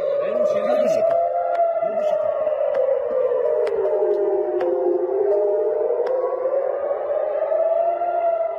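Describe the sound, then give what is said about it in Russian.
A steady air raid siren wails in Israel, its tone slowly dipping and rising again, while sharp pops and bangs from the Israeli missile defense system intercepting rockets fired at Israeli cities break through at irregular intervals. “Отчасти сработала система защиты противоракетной израильская, и вот можно послушать, как это звучит.”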